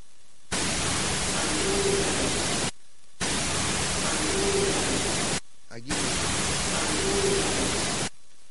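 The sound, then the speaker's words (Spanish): Loud, steady static hiss from an EVP recording plays in three separate bursts of about two seconds each, with brief silences between, as if the same snippet were replayed three times. “Vamos a escuchar esta inclusión psicofónica.”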